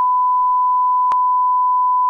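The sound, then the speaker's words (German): A steady, unbroken censor beep at one mid-high pitch holds for about two seconds at constant loudness, with faint clicks at the start, middle and end; no voices can be heard beneath it. “könnt ihr da ich, Piep drüberlegen? Wir müssen es wir müssen's wirklich piepen.”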